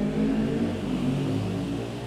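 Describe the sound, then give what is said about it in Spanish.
Loud motorcycle engines rumble and rev outside, a steady, throaty roar that holds for a couple of seconds and begins to fade slightly at the end, with no voices. “Hoy van en combo las motos pedorras. Adiós, motos pedorras.”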